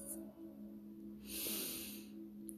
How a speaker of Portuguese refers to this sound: Inspire e expire pelo nariz